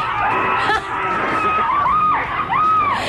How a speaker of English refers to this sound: You got a party going on there, huh? Yeah, somewhat.